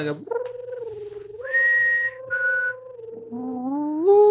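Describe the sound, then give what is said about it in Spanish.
A person whistles a soft, sweet little melody imitating the cute song of a mogwai, with sustained tones gliding up and down and rising at the end, fairly loud, with no talking. “Bien bonito, Bien bonito el sonido. Encantador, así como. Adorable.”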